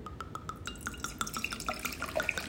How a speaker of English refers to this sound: First off, let me pour this pour this uh, Moscato right quick.